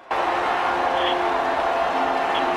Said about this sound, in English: Let's hear a little. Let's hear a little crowd. This is awesome. They're playing that dun dun dun song.